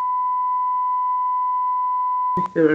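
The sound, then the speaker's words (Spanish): A single steady, sustained beep tone at a mid pitch holds for over two seconds, then cuts off as a voice abruptly begins speaking. “Pitido.”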